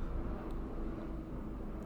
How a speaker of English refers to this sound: Hi, airplane.